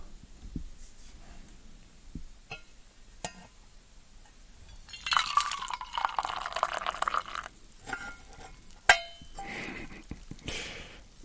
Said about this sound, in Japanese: どうですかね今注いだ音はいい音が取れましたでしょうか